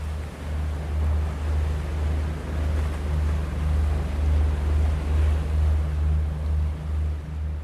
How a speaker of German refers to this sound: erwarte auch ich kreischende Möwen, Wellenrauschen unter dem Bug der Fähre, Schiffstuten. So sollte Hamburg klingen.